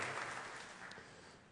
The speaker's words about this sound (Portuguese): Uma salva de palmas mais uma vez.